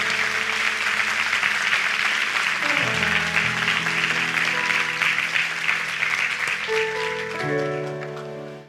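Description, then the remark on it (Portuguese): A large crowd claps steadily and densely for several seconds, applauding the Lord, over sustained keyboard chords that shift beneath it, with the applause thinning slightly near the end. “Eu quero que você aplaude o Senhor por isso.”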